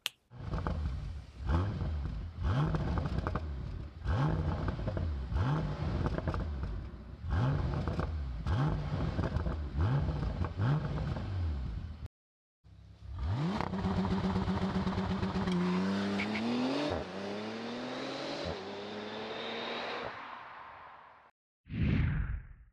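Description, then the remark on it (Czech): A powerful 6-litre twin-turbo V12 car engine of 630 horsepower revs repeatedly in sharp bursts, then climbs through a long rising acceleration, loud, with a brief pause before a final roar. “Tento 12-válec nabídne i nádherný zvukový projev.”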